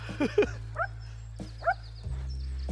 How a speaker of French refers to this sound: Ah, je vois que le chien est content qu'on se barre. non, il sait que j'ai piqué des trucs dans le sac.